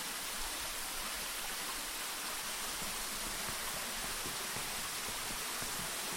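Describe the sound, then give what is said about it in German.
Steady, continuous rush of fresh spring water flowing in a mine, a dense hiss with a low churning undertone that holds at an even level throughout, with no voices and no pauses. “das Wasser, das hier fließt, ist frisch, nehme ich an.”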